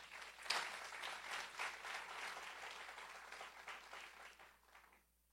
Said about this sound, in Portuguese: E glória a Deus, você pode aplaudir o Senhor por isso?